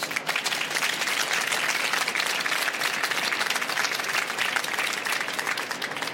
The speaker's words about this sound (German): Meine sehr verehrten Damen und Herren, einen Applaus bitte für